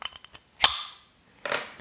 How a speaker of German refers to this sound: So. Also, ähm, ich öffne jetzt dieses Bier und werde dann beim Biertrinken so ein bisschen darüber erzählen